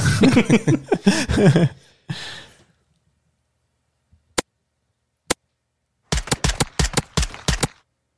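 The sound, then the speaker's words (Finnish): A breathy vocal sound opens, then silence, two sharp isolated ticks, and a rapid burst of crisp gunfire-like clicks, like a video game hitmarker sounding over shots. “Kodin hitmarkkeri on ainakin hyvä ääni”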